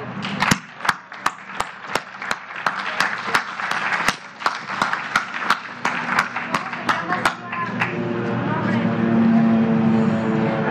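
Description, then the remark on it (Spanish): Audience applause in a steady, rhythmic beat of sharp claps over a crowd's murmur, lasting several seconds before fading as a voice rises in its place. “a ganar un aplauso.”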